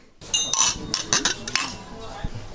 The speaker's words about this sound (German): Wir sind ja auch mal wieder hier im Deichkind. Ähm, also falls ihr wieder was hört, äh, wie jede Woche, ne, dann klimpert das von den Gästen